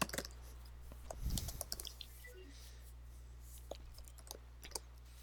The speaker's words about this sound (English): I'm not responding. I'm just not responding because I'm typing out things.